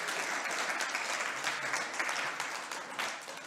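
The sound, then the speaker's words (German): A crowd applauds Jesus steadily, a dense, even wash of many hands clapping at once, sustained throughout with slight swells and no voices standing out. “Und ich glaube, das ist mal ein Applaus wert, den wir unserem Jesus geben können.”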